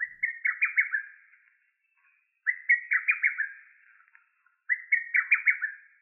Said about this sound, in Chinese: 而小杜鹃啊，跟大中杜鹃一样哦，都是杜鹃科的鸟类。但是啊，它们的叫声真的是差了一个天地哦。这个呢，就是小杜鹃的叫声。